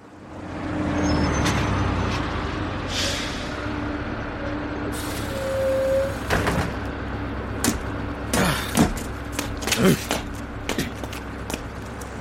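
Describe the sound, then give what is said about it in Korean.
A bus rumbles in, then lets out a loud hiss of air brakes midway through, followed by a scatter of sharp clunks and knocks as it settles, with indistinct voices. “그때 거짓말처럼 정모가 버스에서 내렸다.”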